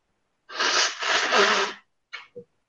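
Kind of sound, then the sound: human body sound, blowing nose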